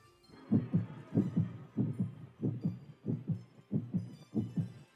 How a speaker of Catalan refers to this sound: Este es el latido de un corazón humano. Quédese muy quieto y escuche. Estos son los latidos de un agonizante.